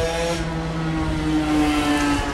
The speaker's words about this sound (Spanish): Hay motos que no saben que, que hay profe grabando por la calle.